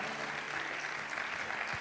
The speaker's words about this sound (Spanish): Vamos a darle un aplauso fuerte al Señor. Give the Lord your best hand clap.